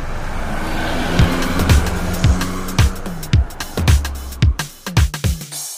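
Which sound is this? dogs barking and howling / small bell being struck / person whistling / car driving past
car driving past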